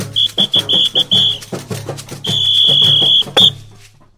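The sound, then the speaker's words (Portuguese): Instrumental stretch of the Boi Bumbá Pai da Malhada folk song 'É com muito amor, com muito carinho': steady pounding percussion with a shrill, high whistle sounding in short repeated blasts, then one long sustained note and a final quick blast. No voices. “Ouvimos o Boi Bumbá, pai da malhada, cantando É com muito amor, com muito carinho.”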